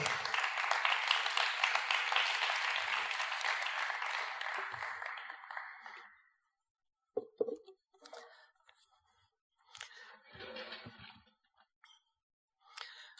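Sustained audience applause, a dense, steady wash of many hands clapping for about six seconds before it fades out, followed by a few scattered soft clicks and rustles.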